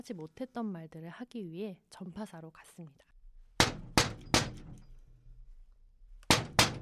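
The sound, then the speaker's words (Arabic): A voice speaks briefly, then a woman knocks sharply on a shop door: three quick raps, a pause, and two more. The knocks are loud and crisp, each with a short hollow resonance. “قرعت باب المتجر أكثر من مرة لكن لم يفتح لها أحد”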